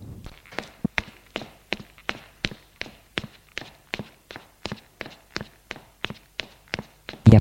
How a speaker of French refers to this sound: Il monte les cinq étages à pied.